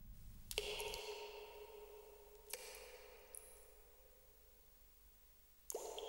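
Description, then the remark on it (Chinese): Water drips in Yuanjue Cave, a Buddhist grotto hall: water seeping from the mountain runs from a carved dragon's mouth into the bowl held up by an old monk figure. Three sharp drops fall at irregular intervals, each leaving a bright, ringing echo that slowly fades into near silence. “宽敞的洞厅，在一片静谧之中，不时传来了滴水声。”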